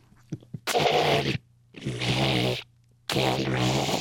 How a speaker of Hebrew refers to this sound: עכשיו אה, נשמע אותו את דפיקות הלב שלו יותר. בואו נקשיב.